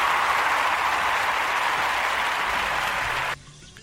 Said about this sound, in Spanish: me debo ponerte aplausos.